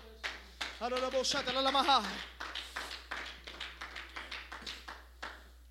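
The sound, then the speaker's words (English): Hands clap together in a steady, rhythmic beat, about three claps per second, continuing through the whole stretch, as people clap their hands to the Lord. A voice sings or calls out briefly over the early clapping, then the clapping carries on alone. “When I call on his name, let's clap our hands to the Lord.”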